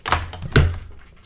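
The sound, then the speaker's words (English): Two heavy thumps about half a second apart, the second louder and boomier, as someone nearly falls out of a chair, followed by a brief low rumble. “Did somebody just fall? Did you just fall? Oh uh, yes, I almost fell out of my chair.”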